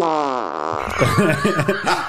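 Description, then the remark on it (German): A tonal, buzzy fart, fart number 4 in a comparison of farts, slides downward in pitch for under a second, followed immediately by loud, bursting laughter. “Aber jetzt wollen wir natürlich wissen, gegen welchen Furz der antritt. Furz Nummer 4.”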